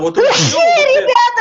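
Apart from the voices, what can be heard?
sneeze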